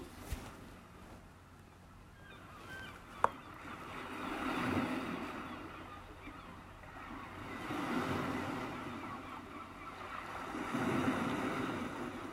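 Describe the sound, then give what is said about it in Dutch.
Ocean surf rolls onto a beach on a warm, sunny day in slow, recurring surges, each wave swelling into a broad hiss and then washing back, with a steady breezy rush filling the gaps between breakers. “Kun je het zien? het strand, de zee, de golven.”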